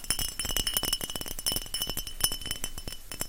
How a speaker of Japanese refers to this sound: 何これなんていうのシューエップス、シューエップストニックウォーターってやつですね。っていうやつを買ってきました。シューエップスって書いてある。ちょっとこれを。これはね、瓶入りですよ。